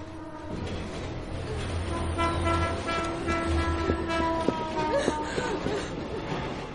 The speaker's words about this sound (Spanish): Otro tren cruza en dirección contraria.